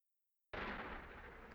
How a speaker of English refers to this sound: A little bit early, like just a few seconds earlier, you hear cannon fire starting in the background and just constantly roaring and like thunderous clouds are coming in, but it is literally cannon fire.